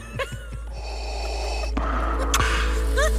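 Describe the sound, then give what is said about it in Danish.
A loud gasping exhale after holding the breath: a few short breathy catches, then a long rush of breath pushed out, growing slightly noisier toward the end, with no talking. “Husk at puste ud. Og dig, …, du er helt blå i hovedet lige nu.”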